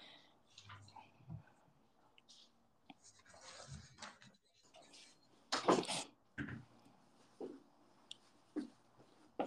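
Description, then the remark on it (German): Keys jingle and clink in short, scattered bursts, with one louder rattle in the middle, against a quiet indoor background with faint murmuring. “Alles gut, ich habe nur Schlüssel okay. gehört.”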